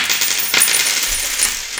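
A physical bitcoin coin, carried as a backup, drops onto a hard tabletop, giving bright ringing clinks with a couple of sharper hits as it settles. No one speaks.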